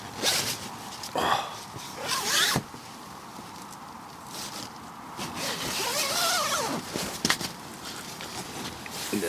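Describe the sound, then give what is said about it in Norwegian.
A sleeping bag being closed up: a few quick rasping, zipper-like pulls, then a longer stretch of rustling fabric and scraping at a steady moderate level, with no talking. “Snøra igjen soveposen her.”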